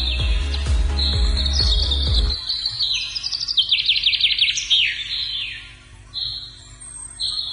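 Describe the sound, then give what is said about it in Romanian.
Forest ambience in the Black Forest, Germany, filled with lively birdsong: bright chirps, trills and rapid tweeting phrases overlapping, with a brief low rumble at the start and a quiet outdoor background underneath. “Da, uite cum sună, de exemplu, pădurea albă închis din Germania.”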